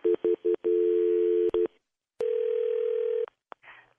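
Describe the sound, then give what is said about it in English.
Telephone ringing tone over a phone line as a call is placed: a few quick beeps, then a long steady electronic tone, a pause, and another long tone, clear with no talking. “Okay, it's ringing.”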